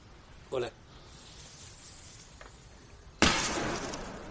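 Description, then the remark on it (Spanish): A single loud gunshot, fired into the ground beside a house to kill a snake, bursts out suddenly after a quiet stretch, a sharp crack that trails off in a harsh, hissing tail. A brief voice sounds earlier, before the shot. “Se gira sobresaltado al oír un disparo tras él.”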